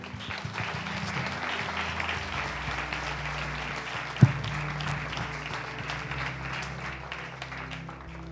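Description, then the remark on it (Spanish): A crowd applauds steadily for several seconds in honor of the King (Christ), a dense, sustained wash of clapping with one sharper thump partway through, and no clear voices standing out. “Denle un aplauso al Rey.”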